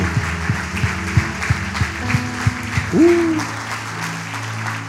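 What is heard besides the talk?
audience applauding loudly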